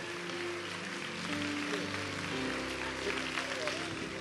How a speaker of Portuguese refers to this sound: Em nome de Jesus, dê um aplauso ao Senhor.